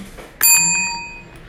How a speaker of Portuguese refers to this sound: Eu comprei uma campainha.